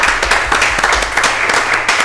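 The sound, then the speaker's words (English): A crowd applauds steadily for a guest at the end of a show, many hands clapping at once in a dense, sustained burst that stays fairly loud throughout. “let get a mm-hmm. round of applause for George.”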